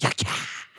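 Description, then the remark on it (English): A single voice makes a quick two-syllable imitation of a whip crack, a sharp clipped burst followed by a loud, hissing whoosh that trails off, alone. “That's the sound of a whip.”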